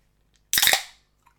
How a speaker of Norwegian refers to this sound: Godt å være tilbake med det der, altså. Mm. Jeg savna synkronisert ølåpning.